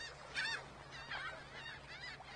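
Several harsh, honking seagull calls at Seagull Rock, loud and squawking, repeated in an uneven series with short gaps between cries, over a faint low hum and no talking.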